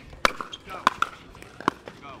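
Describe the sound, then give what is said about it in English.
Hundreds of plastic pickleballs smack against hard asphalt courts at a park in Chula Vista on a warm Thursday evening, in a few sharp, hollow pops at irregular intervals, with faint crowd murmur in the background. “Emanating from a Chula Vista park on a warm Thursday evening is the sound of hundreds of plastic pickleballs slamming into hard asphalt.”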